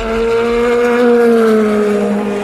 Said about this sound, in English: This is the place to watch the sun go down, and that's what's going on at the moment. Here's some audio of just the cars as they come through the S's